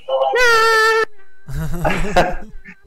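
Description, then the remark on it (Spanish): A loud, drawn-out cat meow rings out, followed after a short pause by a second, wavering cry that blends with a voice talking. “No, no, gato, por favor. Por favor. Este gato siempre es lo mismo.”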